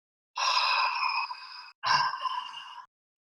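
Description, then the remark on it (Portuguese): Two long, hushed ujjayi yogic breaths drawn through a constricted throat, each lasting over a second, with a soft oceanic rasp like a seashell; steady, with a brief pause between inhale and exhale. “E ao mesmo tempo, esse som do jai, que é aquele som que parece a concha do mar, né?”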